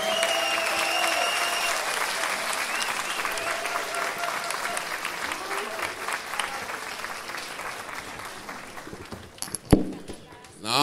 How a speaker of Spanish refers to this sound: Es un aplauso para el Paquita, es un aplauso.